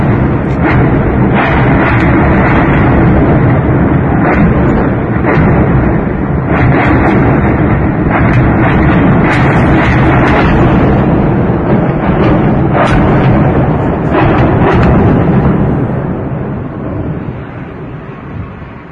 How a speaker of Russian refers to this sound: системами залпового огня бьют по центру города.